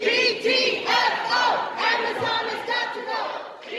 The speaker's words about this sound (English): There were protests at the hearings.